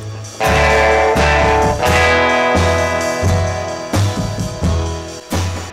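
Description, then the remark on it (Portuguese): Loud, heavily distorted electric guitar chords play a choppy riff, with sustained fuzzy chords changing every second or so over a low bass line, and no voices. “A distorção se tornou mais comercial”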